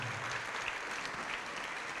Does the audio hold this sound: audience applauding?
yes